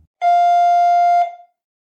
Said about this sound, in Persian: زنگ در منو از خاطراتم بیرون کشید.